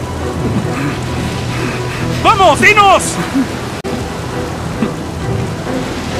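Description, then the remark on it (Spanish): Steady heavy rain hisses throughout with a low rumble of thunder beneath during a storm at sea aboard a ship, while a man shouts urgently over the downpour midway through. “Porque sé que es por mi culpa que ha comenzado esta tormenta.”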